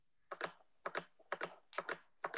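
Crisp clicks of a computer keyboard being typed on, keystrokes landing in quick pairs at a steady rhythm, with no voices.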